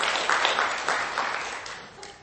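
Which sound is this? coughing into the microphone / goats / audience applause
audience applause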